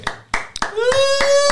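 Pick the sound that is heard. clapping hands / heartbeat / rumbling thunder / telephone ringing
clapping hands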